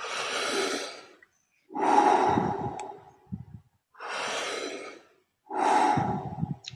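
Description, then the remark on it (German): A person doing a deep-breathing exercise takes four deep, loud breaths through an open mouth, alternating long inhales and exhales in a steady rhythm, with brief pauses between them and no talking. “du atmest gerade mit offenem Mund.”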